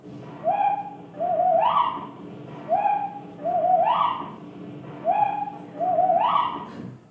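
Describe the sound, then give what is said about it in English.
A slowed-down mockingbird imitation of a whippoorwill song: three identical phrases repeat steadily, each a level whistled note sliding into a longer rising sweep, deep and hollow, almost hoot-like, with no talking. “If we slow down the mockingbird's imitation of the whippoorwill, exactly the same thing happens as with the real song.”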